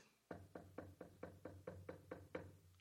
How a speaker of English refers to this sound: knock at the door.